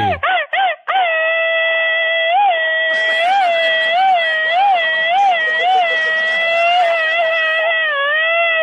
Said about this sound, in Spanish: Échate un grito alterado, viejón.